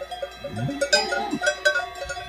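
Several cowbells clank and jingle irregularly as a herd of cows wearing cowbells moves about high up in the Swiss Alps, the metallic tones overlapping, with a faint low animal call beneath.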